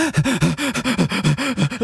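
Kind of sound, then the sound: vocal imitation, imitated heavy panting breaths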